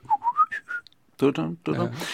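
A short whistled melody of about five quick, pure notes rising in pitch, heard up close, followed after a brief pause by a voice talking.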